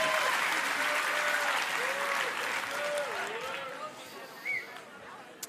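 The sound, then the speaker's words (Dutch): Dense, steady applause from an audience for two people called heroes fills the first four seconds, with some voices calling out over it, then the clapping thins and fades to a few scattered claps. “Maar eerst een groot applaus voor deze twee helden.”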